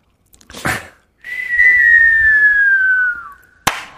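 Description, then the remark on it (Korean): As a vocal warm-up exercise, a voice imitates a fireworks whistle: a short breathy burst, then a long, steady whistled tone gliding slowly downward in pitch, ending in a sharp burst like a bang. “제가 불꽃놀이 하고 그다음에 수도 갑니다.”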